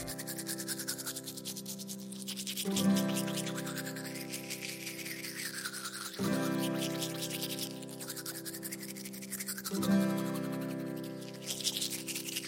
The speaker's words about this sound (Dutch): Ja, we gaan tanden poetsen met een tandenborstel. van links naar rechts en van onder naar boven, helemaal in het rond.